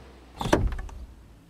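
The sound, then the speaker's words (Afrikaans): A car door opens: a quick mechanical latch click followed by a short rattling clunk as the door swings, then the sound fades away. “Lizzie se mamma maak die kar deur oop en vra: "Kom jy, Lizzie?"”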